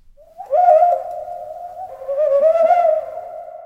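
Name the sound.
ural owl call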